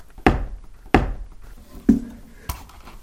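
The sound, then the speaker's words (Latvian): Footsteps thud up wooden stairs, four heavy, resonant knocks spaced roughly every second, the third with a hollow, boomy ring, with no talking. “Nu, redz, te ir, piemēram, tu vari uzkāpt pa trepēm. Šīs ir koka trepas.”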